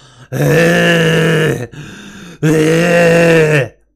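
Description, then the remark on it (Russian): A voice imitates retching during a gastroscopy with two loud, strained, drawn-out gagging heaves, each over a second long, separated by a brief raspy breath, with no spoken words. “Я просто рыгал, как, как черт, блядь. Орал и рыгал.”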